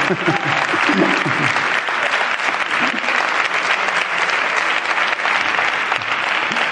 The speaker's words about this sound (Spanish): Cuidado que como sigáis aplaudiendo no me voy, o sea... si seguís aplaudiendo no tenemos para las preguntas, ¿no?